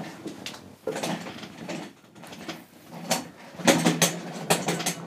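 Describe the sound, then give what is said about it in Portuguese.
A chair is fetched and moved into place for a guest, with a run of scraping, creaking and clattering bursts that grow louder toward the end. No voices are heard. “Eu vou já buscar uma cadeira, ora, com licença.”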